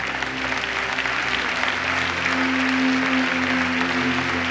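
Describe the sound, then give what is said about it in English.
An audience claps hands steadily in thanks to God after a prayer for healing, a dense, continuous wash of applause with a sustained low organ-like tone humming underneath, loud and unbroken for the whole stretch. “So you just begin to thank him and clap your hands and shout.”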